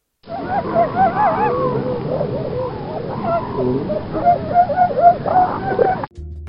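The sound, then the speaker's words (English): Elephant seals bellow with deep, guttural, throaty calls made with their large noses, overlapping continuously for about six seconds, loud, like a noisy colony, then cut off abruptly. No one speaks. “If you haven't seen an elephant seal, as the name states, they are huge and also make a sort of guttural deep noise with their large noses.”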